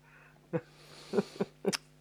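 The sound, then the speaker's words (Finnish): A few short, sharp breaths catch in quick succession, then a sudden sneeze bursts out near the end. No talking, just the gasping build-up and release. “oota, tulee aivastus.”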